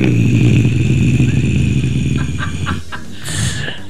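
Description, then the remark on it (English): A voice imitates a zombie delivering the punchline "grains" to a joke about a zombie vegan, letting out a low, guttural, drawn-out groan that rasps loudly for a couple of seconds before breaking into rougher, choppier sounds and trailing off. “That was an awesome zombie sound.”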